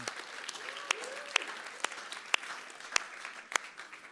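An audience claps steadily, a dense wash of hand claps with a few sharper, louder claps standing out at irregular moments. No one speaks over it.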